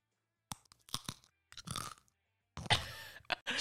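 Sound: crunching potato chips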